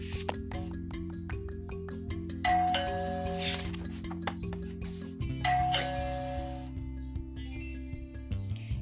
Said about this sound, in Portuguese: Mas quando ia comer, a campainha tocou.